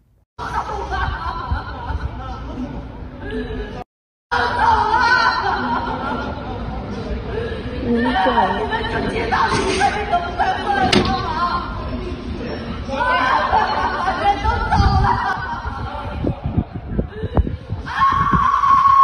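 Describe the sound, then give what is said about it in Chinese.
A family member of a kidney-failure patient who died at home in a locked-down residential compound, unable to get dialysis, cries and wails loudly in long, rising and breaking sobs that go on almost without pause, with other voices murmuring underneath and one brief silence early on. “网友表示，大声痛哭的人呢，是小区内一位尿毒症患者的家属。”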